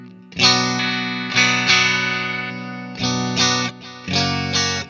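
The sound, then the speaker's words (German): A modeled twelve-string Rickenbacker electric guitar plays bright, shimmering strummed chords, about five sustained strums with short gaps between them, fairly loud with a chorus-like sheen and no voices. “Aber wir haben dann als, als äh, Besonderheit auf der 2 und der 4 äh, eine zwölfseitige äh, Rickenbacker.”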